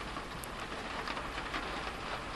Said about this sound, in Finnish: Mutta tosiaan tämä sade, niin se semmoinen kevyt pieni sade, sitähän ei ole koskaan mitään haittaa.